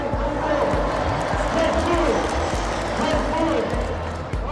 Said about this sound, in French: Dans le virage sud, le leader des South Winners, ce club de supporters de l'Olympique de Marseille, crie un ordre dans son mégaphone.